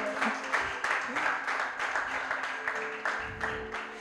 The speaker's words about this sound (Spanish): Amén. Dele un fuerte aplauso al Señor porque lo ha hecho bello, bonito.